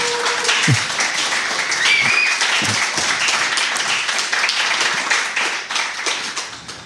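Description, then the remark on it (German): A crowd applauds steadily, many hands clapping in a dense, continuous wash that holds for several seconds before thinning slightly at the end. “Vielleicht so noch klein. einmal so klatschen?”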